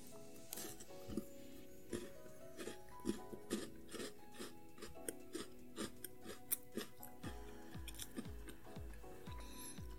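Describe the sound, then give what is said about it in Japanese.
Crisp chewing of a Tim Tam Double Chocolate biscuit from Australia, chocolate-coated with a stretchy, caramel-like chocolate filling, with a steady series of sharp crackly bites and softer mouth sounds throughout, no talking. “咀嚼音”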